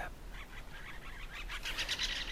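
A great spotted woodpecker calls in a quick series of sharp, high chips, repeated several times a second and growing louder toward the end, with no voices.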